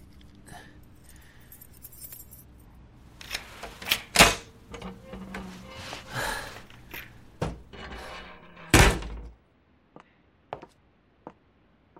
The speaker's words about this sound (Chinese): 终于到家了。你能自己站一下吗？我要拿钥匙开门。